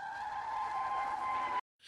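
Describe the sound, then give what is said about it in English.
A loud, sustained tire screech as a car skids while its driver swerves after a large sedan cuts him off, a steady high squeal lasting over a second and a half before cutting off abruptly into brief silence. “A woman in a large sedan cut him off, causing him to nearly swerve onto oncoming traffic.”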